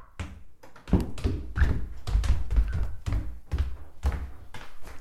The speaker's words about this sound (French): Là, vous entendez mes pas.